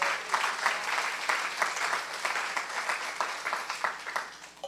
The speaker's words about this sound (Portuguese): Será que você pode aplaudir Jesus nessa manhã?